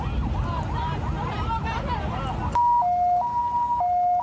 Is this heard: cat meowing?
no